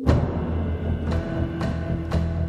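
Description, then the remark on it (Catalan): A deep, continuous rumble with a steady droning hum, broken by three sharp cracking bursts about half a second apart, like an earthquake's seismic recording played back as sound. No voices. “D'un martrèmol a un terratrèmol, que sona així.”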